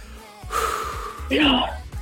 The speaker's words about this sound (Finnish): Apua, mä, siis mä tärisin, mä en saa henkeä. Nyt muutama rauhallinen, rauhallinen hengitys.